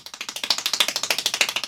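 Extremely rapid hand clapping from a world-record attempt at 804 claps per minute, a steady unbroken stream of sharp claps at roughly fourteen per second, fairly loud, with no voices.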